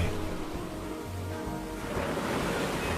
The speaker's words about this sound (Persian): آفتاب نزدیک غروب بود آب دریا بالا می آمد موج آن میخورد به کنار ساحل